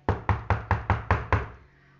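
In a story, the wolf knocks on the door of the pig's wooden house: six quick, evenly spaced, solid knocks on a wooden door, followed by a brief fading resonance and silence.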